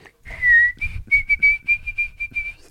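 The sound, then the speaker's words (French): A white-throated sparrow's clear, pure whistled song: one long held note, then a steady run of shorter repeated whistles at an even pitch, heard alone over a low background rumble. “Alors, c'est le bruant à gorge blanche.”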